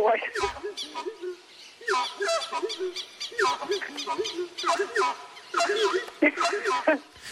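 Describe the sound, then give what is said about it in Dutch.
An Iuna bird gives its everyday call loudly in a long, rapid run of harsh, yelping notes that rise and fall in pitch, repeating in bursts for several seconds with no voices. “die heeft het afgeleid van de zang van de Iuna-vogel.”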